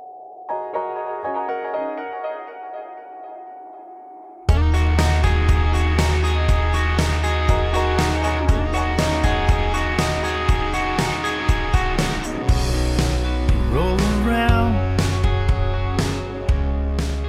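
A pop rock song plays, opening with a soft sustained keyboard intro before drums, bass and guitars kick in loudly around four seconds, driving on with a steady beat and no talk over it.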